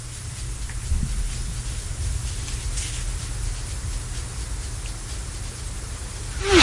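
Steady, dense rain hisses continuously with a low rumbling undertone, even and unbroken throughout, swelling slightly louder in the final moment.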